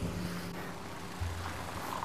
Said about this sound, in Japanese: さすがに今日はスニーカーを履いて今歩いているところですであの車の大通りを今歩いてるんですけどちょっと怖いですねあのつるっと滑った車がね向かってくるんじゃないかと思ってね